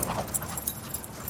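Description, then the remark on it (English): A dog whimpers and lets out short, high yips at the dog run in Washington Square Park, Greenwich Village, New York City, amid a busy outdoor backdrop, the cries coming in quick irregular bursts at moderate volume with no one talking. “In New York City, one of the great places to do that is the dog run in Washington Square Park in Greenwich Village.”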